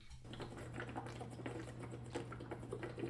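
Someone drinks water in quick, steady gulps, each swallow a soft click in a repeating rhythm, with a low electrical hum running underneath throughout.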